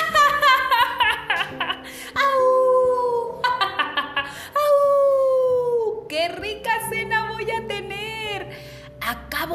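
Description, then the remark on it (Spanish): A person's voice imitates an excited wolf, letting out several long, gliding, loud howls broken by short yelping bursts. “Y entonces el lobo gritó de emoción.”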